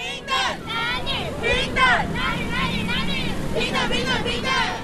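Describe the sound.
A crowd of demonstrators at the Women's March Taiwan, nearly 100 marchers holding red balloons and wearing knit pussy hats, marching from the Chiang Kai-shek Memorial; many overlapping voices shouting and calling out together over a steady outdoor rumble, loud throughout.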